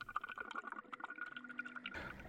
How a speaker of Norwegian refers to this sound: Nå skulle vi kanskje hatt en dykkermaske og en snorkel. Hold pusten, nå dykker vi ned i havet.